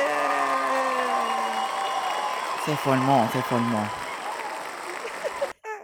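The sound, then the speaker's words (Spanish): An applause-and-cheering sound effect played from a soundboard: a crowd applauds and cheers in a steady, dense roar for several seconds, with a man speaking over it briefly before the sound cuts off abruptly near the end. “este, una sección de aplausos.”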